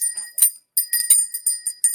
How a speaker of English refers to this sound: I also have bells.